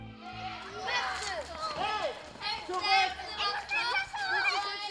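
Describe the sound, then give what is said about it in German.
Lively children's voices call out and chatter in the yard of a primary school on a quiet residential street in Bochum-Wattenscheid, Germany, in the early afternoon, overlapping shouts and high-pitched exclamations rising and falling steadily. “Es ist früher Nachmittag, Kinder spielen auf dem Hof.”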